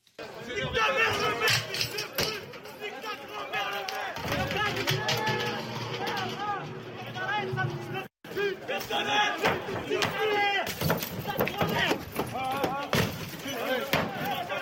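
A loud, agitated crowd of rioters yells insults continuously as an elected official approaches his burning car, overlapping angry shouts rising and falling, with a steady low rumble beneath and a brief cut to silence partway through.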